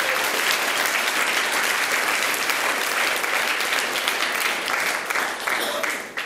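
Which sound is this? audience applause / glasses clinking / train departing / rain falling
audience applause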